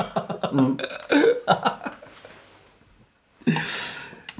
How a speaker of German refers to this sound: Sorry, ich muss kurz was trinken. Ich habe totalen Hustenreiz.